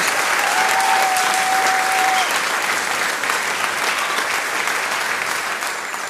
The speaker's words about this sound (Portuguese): Oh, aplausos, aplausos.